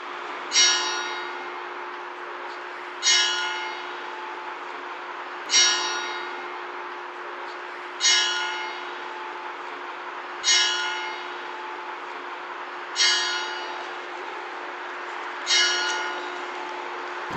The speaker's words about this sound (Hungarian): hetet ütött az óra.